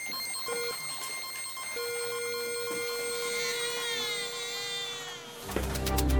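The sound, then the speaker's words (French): A steady background hum of electronic machines with a beep tone over it: a short blip, then a long sustained tone, before the beep abruptly turns into a louder crying baby at the end. No one speaks. “Pour le son de l'introduction, un bruit de fond de machines électroniques, suivi d'un bip électronique qui se transforme en un bébé qui pleure.”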